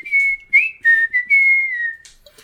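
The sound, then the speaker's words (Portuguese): A person whistles a bird-like tune: a few short, bright chirps followed by a longer note that wavers and slides, high-pitched and fairly loud, with no talking. “Ó, o passarinho, que são esses?”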